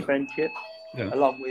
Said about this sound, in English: That's just our that's just our doorbell. Uh, um, it's fire alarm.